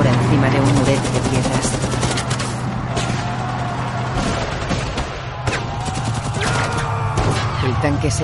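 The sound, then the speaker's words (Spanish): Bursts of rapid gunfire as soldiers running beside a tank shoot at a cabin from which German soldiers emerge: sharp repeated shots and automatic fire crackle loudly over a steady low rumble throughout, while a voice speaks over the battle noise. “Disparan a una cabaña de la que salen soldados alemanes.”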